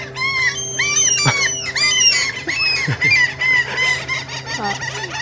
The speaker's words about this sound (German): Nee, Kriegen also, hier ein wunderschönes Möwenkonzert geliefert. Ja. Aber man muss auch sagen, wir sitzen hier direkt am Kiosk.